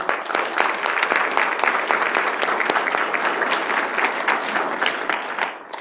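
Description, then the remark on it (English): Steady applause from a crowd at a meeting, many hands clapping in a dense, crackling wash that holds at a fairly loud level for several seconds before tapering off slightly at the end. “Not to embarrass you guys, but I just want to give you all a round of applause.”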